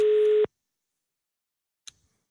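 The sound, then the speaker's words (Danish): A steady telephone call tone hums loudly for about half a second while calling back to someone in Strandby, then cuts off into silence before a faint brief click near the end. “så ringer vi tilbage til Strandby.”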